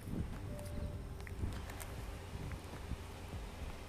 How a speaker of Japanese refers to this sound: いつもやったらねあの波の音を聞きながらとかで喋るんですけども今日はただただテクテクと歩くだけで